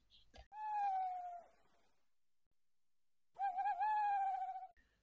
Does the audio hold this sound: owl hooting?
yes